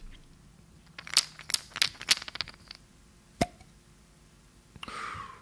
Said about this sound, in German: Ja, man hat gehört, dass du was geschüttelt hast und danach etwas geöffnet hast.